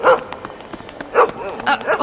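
A dog barks several times in quick, uneven bursts, loud, with brief pauses between the sharp yaps and no one talking.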